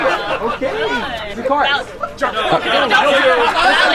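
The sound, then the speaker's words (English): A crowd of about 50 to 60 men chattering on an outdoor patio, many overlapping voices forming a steady, lively babble with occasional laughter, loud throughout. “So there's probably 50, 60 guys on the outside patio as this is happening.”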